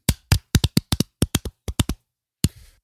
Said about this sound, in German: Ganz genau, Applaus an der Stelle.